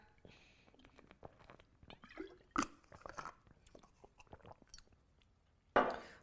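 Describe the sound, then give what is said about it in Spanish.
A person drinking water: soft, wet mouth sounds and swallows, broken by a couple of sharper clinks or knocks, with no talking. “perdón, no tiene agua por aquí, ¿me, pasas el agua, por favor? Es que ya, ya me estoy ahogando, ya hablé mucho tiempo.”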